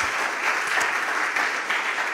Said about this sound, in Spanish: Y aplauden fuerte al Señor. Vamos.